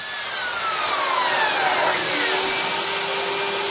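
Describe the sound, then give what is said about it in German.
A loud mobile panel-cutting table saw whines steadily through a board, cutting a bevel notch in about a minute, its high-pitched motor tone shifting slightly as the blade cuts, with no talking. “Ein mobiler, aber auch sehr lauter sogenannter Plattenzuschneidetisch erledigt in einer Minute den schrägen Kerbschnitt, für den ein Trockenbauer mit der Hand eine halbe Stunde bräuchte.”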